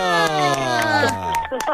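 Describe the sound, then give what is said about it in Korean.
A brief burst of cheering from a few voices of a family on a phone call, celebrating a correct quiz answer, one loud drawn-out shout whose pitch slides steadily downward for over a second before breaking into short excited calls. “드디어 함성이 나오네요.”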